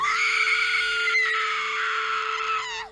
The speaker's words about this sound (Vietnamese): thét lên rồi bừng tỉnh